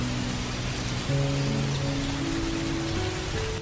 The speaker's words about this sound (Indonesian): Namun, tiba-tiba hujan turun dengan lebat.